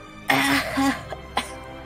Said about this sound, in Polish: No, e, pali jest mocne i chce ci się kaszleć.